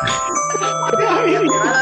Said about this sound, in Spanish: ¡Ahora una alarma!